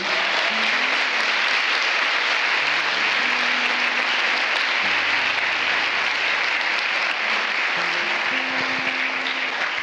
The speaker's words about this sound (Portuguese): Aplauda Jesus.